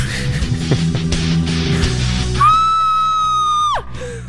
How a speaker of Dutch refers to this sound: We zeggen wel schreeuw, want het kan een, eh, een schreeuw van vreugde zijn